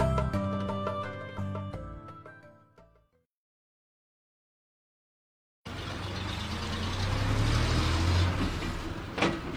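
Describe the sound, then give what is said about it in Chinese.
A bus engine drones steadily while driving toward the Terracotta Warriors, a loud low rumble with broad road noise. It starts after a few seconds of silence, which follow a fading stretch of tonal, ringing sound. “搭上有舞的大巴，驶向我梦驰神往的地方——兵马俑。”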